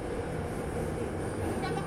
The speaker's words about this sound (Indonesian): dan kalau rasanya naik kereta ini sih kalau saya sih kayak naik KRL ya sebenarnya ya jauh beda kayak KRL tak kira tuh kayak busan gitu atau apa wah ternyata emang kayak KRL aja